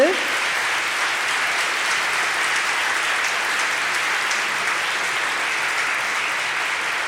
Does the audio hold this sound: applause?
yes